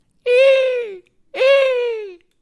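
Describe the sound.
A person imitates a falcon's cry with two drawn-out, high, strained calls, each sliding slowly downward in pitch, separated by a brief pause. No other talking.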